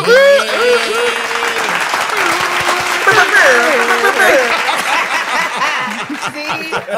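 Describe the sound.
A crowd in Nashville erupts in loud, sustained applause with whoops and cheering voices, a dense wash of clapping that fills the whole stretch and tapers slightly near the end.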